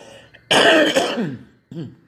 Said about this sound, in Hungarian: Na, bele is köhögősödök.